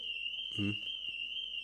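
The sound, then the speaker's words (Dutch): A car alarm goes off outside, a steady, high-pitched tone sounding continuously in the background, unbroken and fairly even in level, while a brief voiced sound briefly rises over it. “Is dat een brandalarm of is dat hier gewoon een auto?”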